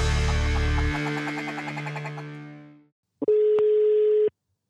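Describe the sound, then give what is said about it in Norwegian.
A low electronic hum throbs and fades out, then after a short silence a single steady telephone ringback tone sounds for about a second as an outgoing call is placed, clear and fairly loud, with no one talking. “Men da ringer vi, da.”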